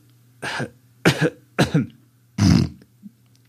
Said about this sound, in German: Hust.